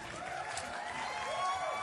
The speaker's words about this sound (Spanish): El mismísimo Edson Zúñiga en el estudio. Por favor, un aplauso, un aplauso.